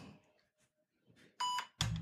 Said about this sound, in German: wollte nämlich jetzt live morsen und er wollte euch jetzt mal hier vormorsen, was hier los ist.